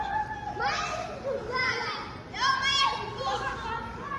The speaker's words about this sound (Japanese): サウジでもすごいこう広場があってかっこいいんですよこの辺り今度子供たちがサッカーで遊んでますね昼間が暑いので夜にみんな遊ぶわけですね